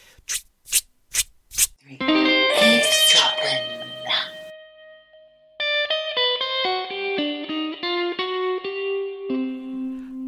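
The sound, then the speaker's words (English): Four quick percussive bursts, then a processed, distorted voice scat-singing a jazz greeting: a smeared sustained phrase followed by a run of bouncy, staccato syllables at a steady, lively pace, loud. “I was going to say, you're scatting all over the place.”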